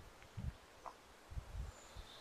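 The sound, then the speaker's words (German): Soft wind stirring tree leaves in a forest at the Wennsee in Schabolz, quiet and gusty, with a few low buffeting puffs and faint rustle, plus a bird chirp near the end. “das ist der Wind, der gerade so durch die Blätter fegt.”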